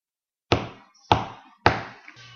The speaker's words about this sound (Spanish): Al llegar ante la puerta del gigante, los duendecillos reunieron el valor suficiente para picar en la puerta.